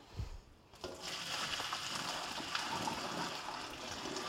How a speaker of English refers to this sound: Put it in a colander, let all the water drain off so that your pan, that your pasta pan is empty.